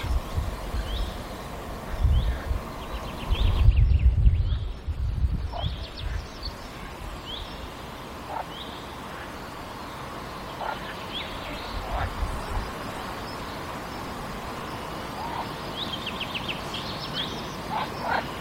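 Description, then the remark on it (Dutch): Marsh frogs (green frogs) croak in rubbery, rattling bursts, repeated at irregular intervals over an outdoor wetland chorus. Chirping birds, including a finch, and a soft rustling background are mixed in. “de eh, groene kikker wordt soms vergeleken met twee stukken rubber die over elkaar wordt gegeven.”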